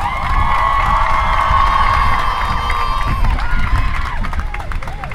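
A large crowd applauds and cheers steadily for about five seconds, loud clapping mixed with sustained shouts and whoops that stay strong throughout before easing slightly at the end.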